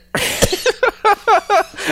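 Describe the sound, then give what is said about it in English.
A harsh cough bursts out, followed by a quick run of shorter, rhythmic hacking coughs that keep coming for a couple of seconds. “no, I'm gonna let you finish coughing.”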